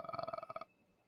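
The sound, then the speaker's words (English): An electronic doorbell rings in a fast, warbling trill for about half a second, bright, then cuts off abruptly into quiet. “We're getting people bringing my fucking doorbell in the middle of my videos.”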